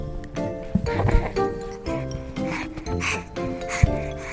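A little girl, excited at being interviewed for the first time, panting: quick, raspy breaths in an uneven rhythm, some carrying a faint voiced tone, fairly loud and continuous, with no clear words.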